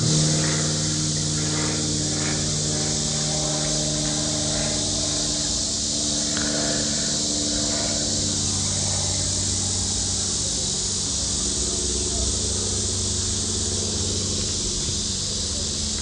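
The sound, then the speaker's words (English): An aeroplane passes overhead, a steady, broad engine roar with low droning tones that holds for about sixteen seconds, with no one speaking. “I'll pause for the aeroplane.”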